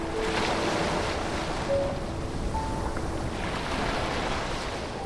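Ocean waves wash steadily onto a beach under a high sun and azure sky, a continuous roaring surf that swells and recedes gently, with a breezy hiss of a light wind mixed in and no voices.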